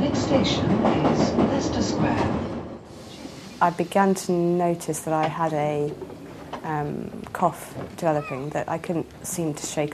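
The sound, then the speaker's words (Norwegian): A subway train rumbles and rattles along the rails for a few seconds, loud, then fades out as a person begins talking over a quiet background. “Et nys på T-banen kan være nok.”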